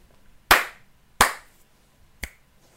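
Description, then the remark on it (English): Two sharp, loud hand slaps about a second apart, followed by a quicker, lighter finger snap with a bright, higher tone. No talking underneath. “It's two slaps and a snap.”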